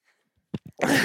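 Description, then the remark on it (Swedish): A single sneeze: two short catching inhales, then a sudden loud, breathy burst that cuts off at the end, with no talking. “Som en katt.”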